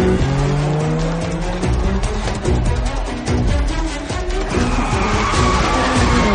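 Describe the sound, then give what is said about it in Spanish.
A car engine revs hard as the vehicle speeds off along a street, tires squealing sharply against the road. It is a loud, continuous roar with no voices. “Taylor sale a una calle y acelera”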